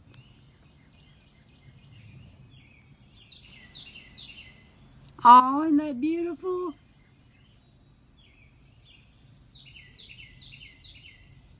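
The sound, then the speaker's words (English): Small birds chirp outdoors in short, quick clusters, soft, over a constant high-pitched insect drone; a person speaks briefly in the middle. “Sometimes I'll come out here in the morning, I'll hear them chirping like that, and I say, I hear you singing to the Lord.”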